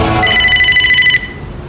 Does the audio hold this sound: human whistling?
no